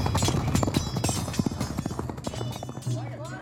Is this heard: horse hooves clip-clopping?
yes